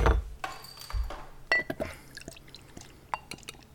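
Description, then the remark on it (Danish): Wine being poured into a glass, a gurgling trickle with light drips and small glassy clinks, fairly quiet and heard on its own without talking. “Så kan vi i hvert fald hælde druen op.”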